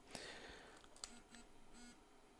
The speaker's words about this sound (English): Okay, now probably through the mic, you probably heard two quick vibrations. That lets me know that the unit's on